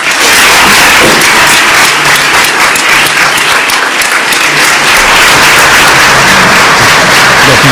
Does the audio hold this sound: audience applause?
yes